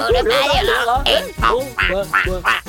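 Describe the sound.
Children's voices imitate duck quacks in a quick, rhythmic series of about six or seven nasal, bright calls, loud, with almost no pause between them, while doing a duck dance and miming wings with their elbows.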